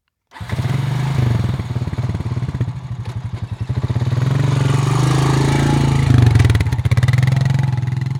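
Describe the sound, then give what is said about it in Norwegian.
A four-wheeler ATV, a small roofless vehicle with wide wheels, sputters to life as its start button is pressed, chugs at a rough idle, then revs up and holds a loud, steady throttle, with a rattling, clattery mechanical edge. “Så trykker Bjørnis på startknappen.”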